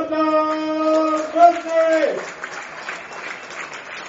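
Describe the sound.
At an American football game between Marburg and the Silent Hurricanes, a stadium announcer's amplified voice calls out with long, drawn-out tones for about two seconds, signalling that a first down was reached after measurement, then gives way to crowd applause and cheering that carries on steadily across the stands.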